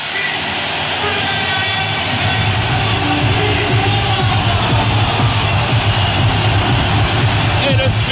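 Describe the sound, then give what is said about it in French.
A dense, roaring wall of crowd noise fills a stadium as the two teams walk onto the pitch, an ovation steady and loud throughout with a broad rumble and scattered cheering swells, no single voice standing out. “Voici les deux équipes qui ont sur la pelouse. Écoutez l'ovation”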